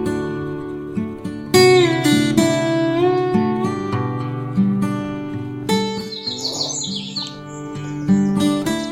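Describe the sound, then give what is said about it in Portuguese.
Instrumental music plays throughout, with melodic tones and plucked notes, while a burst of high bird chirps and twittering rises above it near the end, birds singing in the countryside at the Hotel Fazenda das Aroeiras. “Este podcast tem um sabor diferente, tem o cheiro do mato, o canto dos pássaros, dos grilos, é o manifestar da natureza.”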